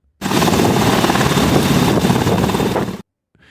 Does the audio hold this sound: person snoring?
no